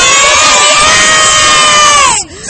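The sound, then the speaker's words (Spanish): A crowd of third-, fifth- and sixth-grade schoolchildren from a public school, taking part in the chaquetía festival, shouting and screaming together, loud, a sustained high-pitched roar of many voices that cuts off abruptly near the end. “Eh, no hace falta que gritéis, a ver.”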